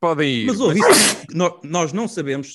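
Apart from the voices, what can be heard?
sneeze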